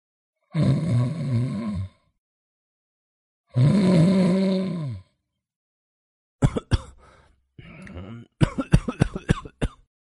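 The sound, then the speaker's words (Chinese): A man waking on a sofa lets out two long, low, drawn-out groans, then coughs and clears his throat in a cluster of short, harsh bursts, with no talking. “他睁开眼，咳嗽了一声。”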